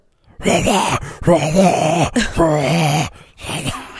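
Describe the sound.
A voice imitates death metal growl vocals, delivering loud, rough, guttural bursts in four phrases with brief breaks, the low pitch wavering under heavy rasp.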